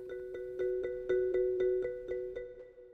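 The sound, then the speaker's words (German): A male ash cicada (Cicada orni) of the Mediterranean region singing, a buzzing drone pulsed in a fast, even rhythm of about four rasping beats per second, steady, with no voices. This song can last for hours and can be heard up to 600 metres away. “Der stundenlang andauernde quäkende Lärm der im Mittelmeergebiet lebenden Eschenzikade, Cicada orni, ist noch in einer Entfernung von 600 Metern unüberhörbar.”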